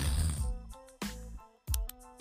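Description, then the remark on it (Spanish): A voice imitates the stuffy, congested nasal breathing of a woman of about 40 with a bad cold: a few snorting, wheezy breaths with a faint whistling tone, repeated in uneven bursts and heard alone, without talking. “Respiraba esa.”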